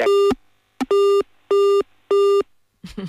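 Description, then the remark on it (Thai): A telephone busy signal sounds four loud, evenly spaced tones with short gaps between them after the phone line to a doctor drops, following a cut-off voice at the start and a brief voice fragment at the very end. “สัญญาณคุณหมอหลุดไปเดี๋ยวแป๊บหนึ่งคุณผู้ฟังนะคะ”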